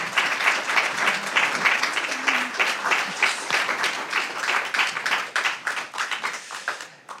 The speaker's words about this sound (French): Et donc, euh, nous pouvons l'applaudir.